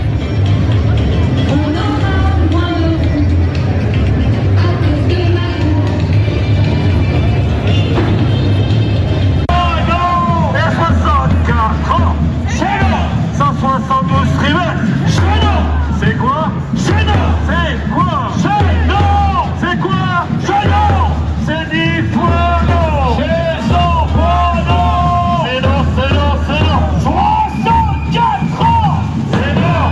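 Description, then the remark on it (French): A dense crowd at the start of a street protest march in Paris on a sunny day, with the CGT Île-de-France contingent, heading toward the Opéra; a steady loud hubbub of many overlapping voices with occasional shouts and calls rising above the din, continuing without pause throughout. “début de cortège et je dois dire qu'il y a beaucoup de monde, un beau soleil à Paris et surtout une chanteuse extraordinaire qui nous fait vivre euh, ses émotions sous le ballon rouge et jaune de la CGT Île-de-France.”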